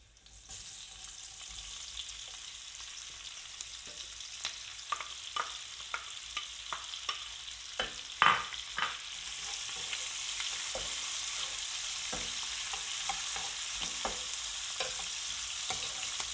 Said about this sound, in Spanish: Este ajo ya está tostadito, sin estar quemado, no nos interesa que siga cociendo así, por lo tanto le vamos a incluir ya la cebolla y el pimiento, que con el poquito de agua que aportarán, cortarán ese tipo de cocción y ya lo tornarán más meloso.